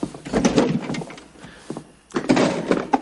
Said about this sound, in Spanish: abre la nevera y saca los carretes.